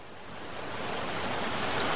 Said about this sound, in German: Da wären wir doch jetzt gerne, oder? Am Meer. So leichten Wellen. Am liebsten Wasser, durch das man durchschauen kann. Bis auf den Boden.